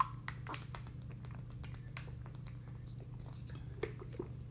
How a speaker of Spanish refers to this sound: Perdón, estoy tomando agua.